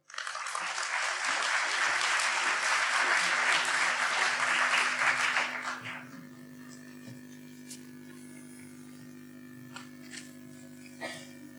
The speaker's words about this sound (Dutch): graag een hartelijk applaus en uw aandacht voor